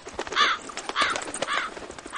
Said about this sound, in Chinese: 桃太郎听乌鸦唱完